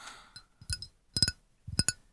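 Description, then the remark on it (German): Fingernails tap a glass holding a fair amount of water in small clusters, bright ringing clinks with a soft low thud beneath each, quiet with pauses between groups. “Das, war übrigens Lisa mit einem Glas, wo mit ihren Fingernägeln dann geklockert. Und da ist Wasser drin.”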